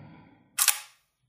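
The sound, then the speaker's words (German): A camera shutter fires once: a crisp, bright mechanical snap with a quick double-clack, loud against a faint low murmur beforehand, then silence. “Das hast du nur mal klicken müssen.”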